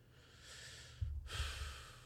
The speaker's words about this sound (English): Uh, you can tell because I'm very congested still. I've been sniffling for